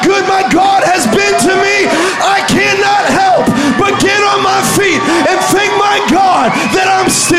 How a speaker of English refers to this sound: somebody who's been through the battle, give God a shout right now. Come on. Come on, let the army shout right now.